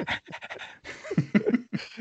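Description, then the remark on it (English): A person imitates a dog panting, with quick, breathy huffs and a few voiced yelps in rapid rhythm, with no ordinary speech. “I'm like like a dog. Like a dog.”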